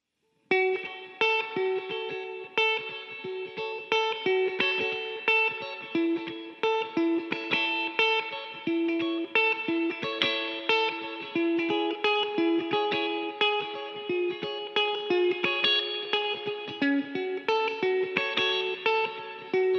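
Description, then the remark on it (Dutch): A lively instrumental music passage with bright, effects-laden guitar tones, dense layered harmonies and a steady driving rhythm, played loud and continuous with no voices. “heel vette muziek. het noemt …. En we gaan er gewoon naar luisteren.”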